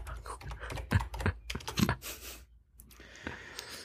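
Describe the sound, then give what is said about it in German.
Rapid, irregular keystrokes clatter on a computer keyboard, with a brief pause midway before the tapping resumes more softly; faint breathing or background noise sits underneath. “Also äh, ich bitte wieder die Tastatur zu entschuldigen, die ich auch selten rausmische und wenn dann nur leiser mache, weil ich es immer blöd finde, wenn man Geräusche weglässt, auf die man eingeht.”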